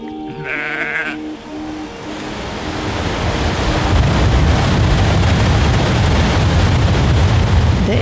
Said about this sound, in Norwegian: Mardalsfossen dundrer ned i den vesle bygda Eikesdal.